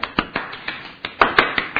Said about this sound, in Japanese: 拍手ありがとうございます。